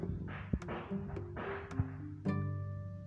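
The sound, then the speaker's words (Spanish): Several sharp, distant firecracker pops crack at irregular intervals around the area on New Year's Day, January 1, 2021, fairly quiet, over a low steady hum with faint whooshing noise in the background. “y se escuchan tronar cohetes alrededores porque es primero de enero de la primera meditación del 2021.”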